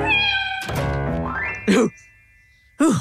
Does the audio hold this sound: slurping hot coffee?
no